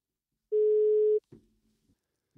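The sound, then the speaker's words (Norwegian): A telephone dial tone sounds once, a steady, clear electronic hum lasting under a second, followed by a fainter click and low line noise on the connection. “Ja, neimen eh, Da eh, tar vi og eh, Så ringer vi til”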